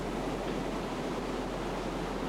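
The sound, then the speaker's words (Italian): A steady, continuous rush of surf washing over a beach as a woman walks into the water, a dense hiss of breaking waves that holds even in loudness throughout, with no voices present. “Un ultimo sguardo e lei entra in acqua, lasciando alla spuma il compito di coprire il rumore dei ferri.”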